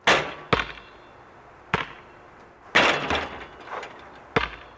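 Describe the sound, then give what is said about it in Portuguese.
Someone playing basketball: the ball thuds irregularly on a hard court, each sharp bounce ringing out with a reverberant tail. About seven impacts occur, some close together, with no talking. “É isso mesmo, é alguém a jogar basquete.”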